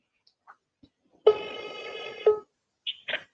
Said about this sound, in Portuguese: Ok, está a chamar. E yeah, eu acho que vocês conseguem ouvir.